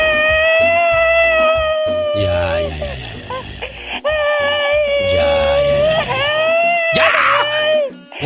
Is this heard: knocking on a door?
no